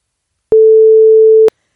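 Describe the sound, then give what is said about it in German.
A single loud censor bleep covering a spoken name: one steady mid-pitched tone lasting about a second, with abrupt clicky edges at start and finish, and no talking underneath. “Ich glaube, wir müssen das alles piepen, ne?”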